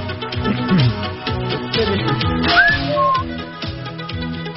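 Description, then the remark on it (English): A brief burst of transition music with a steady, pulsing rhythm and a whistle-like melodic line sliding up partway through, with a short laugh near the start. “Transition music, Michael. Do you mind? We haven't done that lately.”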